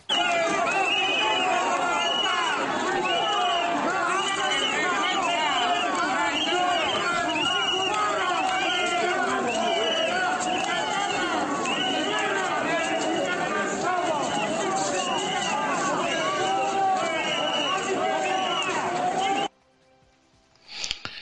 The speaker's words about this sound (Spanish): Y ahora vamos a escuchar cómo la gente reacciona cuando llegaba el ministro Marlasca a, Valladolid a, llevar a cabo un acto, un acto público. Así le escucha, así le recibían.